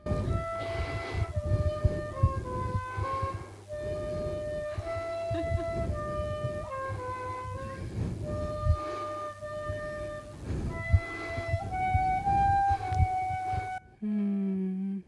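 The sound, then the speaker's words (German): A flute, played live by a female flutist, plays a melody of sustained, mid-to-high notes that step up and down in short phrases, over a low steady hum, breaking off abruptly just before the end. “Ein Applaus bitte für die Flötistin.”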